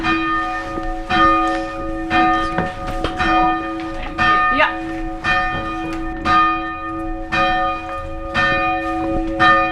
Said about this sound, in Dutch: Oh ja, daar zie ik hem zeg. Wat een enorme joekel van een klok met een inscriptie erin.